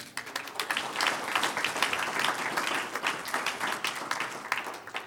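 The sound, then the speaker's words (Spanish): A church audience bursts into sustained applause for the Lord, many hands clapping densely and steadily for several seconds, fairly loud and filling the space, with no voices standing out. “Un aplauso al Señor.”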